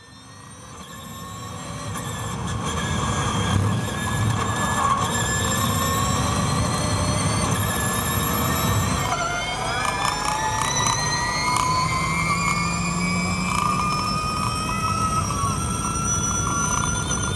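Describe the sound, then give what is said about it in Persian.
Formula E electric race cars whir past with a steady, high-pitched electric whine that climbs in pitch partway through, loud and continuous over a rumbling background, with no one talking. “خب شنیدید صدای مسابقات فرمول ای رو در نظر بگیرید وقتی ماشینا موتور داشتن صداشون خیلی بیشتر از این بود موتور بنزینی داشتن”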